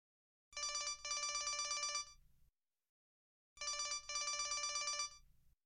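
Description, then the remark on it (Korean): A mother's mobile phone rings with an incoming call from a supermarket, the ringtone in two bright electronic bursts, each about two seconds long with a short gap inside, separated by a pause of silence. It is clear, with no voices. “엄마 휴대폰에서 벨이 울렸다.”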